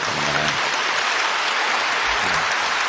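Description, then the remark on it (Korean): An audience bursts into sustained applause of thanks to God, a dense, steady wash of many hands clapping together from start to finish with no voices standing out. “우리 한번 하나님께 감사의 박수를 먼저 올려드리고요.”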